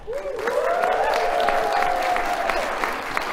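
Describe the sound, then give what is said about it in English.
A live audience in a packed room at the ISTE Live 2022 conference in New Orleans applauds in a steady, dense wash of clapping for about three seconds, with a long sustained whistle riding over the top. “Um, we have a packed room, so let's, let's hear it out there.”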